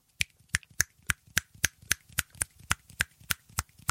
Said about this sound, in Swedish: Ska vi se hur snabbt jag kan knäppa med fingrarna? Ja, vi, ja.